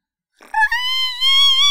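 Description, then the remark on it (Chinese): A person imitates a kiwi bird call with one loud, shrill, sustained cry that starts with a brief wobble and then holds a high, slightly rising pitch for over a second. “OK，好，那最后来学一下奇异鸟的叫声。”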